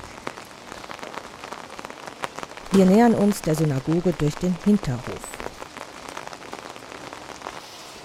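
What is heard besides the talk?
rain falling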